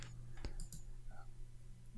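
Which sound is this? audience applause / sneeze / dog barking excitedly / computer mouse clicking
computer mouse clicking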